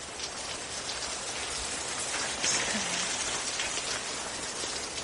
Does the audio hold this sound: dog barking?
no